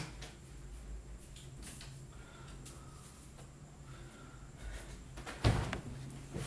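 A closed door is opened to let a female cat out: faint shuffling and creaks, then a sharp knock-like clunk near the end as it opens, with low background hum throughout and no talking.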